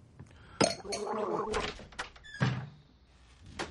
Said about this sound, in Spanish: La mujer bebe un trago de una copa.